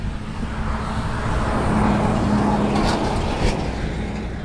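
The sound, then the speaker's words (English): A heavy truck rumbles past, a broad low engine roar with a steady hum that swells and fades slightly over a few seconds, no voices present. “Apologies, there was another truck.”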